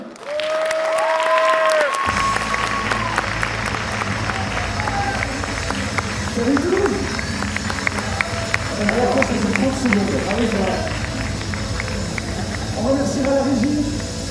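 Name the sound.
audience applause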